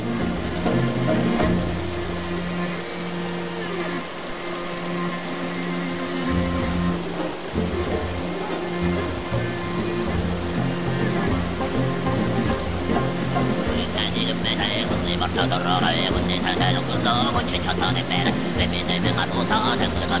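Steady, loud rushing of a sacred waterfall fills the whole recording, with a low droning voice singing over it and a high whistling overtone appearing partway through.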